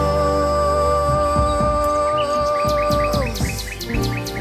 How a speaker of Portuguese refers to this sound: uma harmonia trazida dos roxinóis.